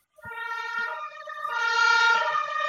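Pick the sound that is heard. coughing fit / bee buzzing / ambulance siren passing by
ambulance siren passing by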